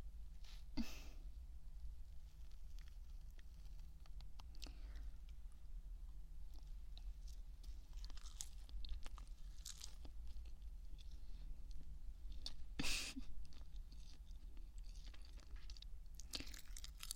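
Someone chews and crunches on food, with sharp crackly bites at irregular moments over a quieter, steady chewing rhythm. There is no talking, only a low background hum.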